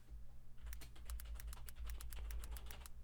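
Rapid, irregular clicking of keys being typed on a computer keyboard as an email address and password are entered to register, over a steady low hum with no one speaking.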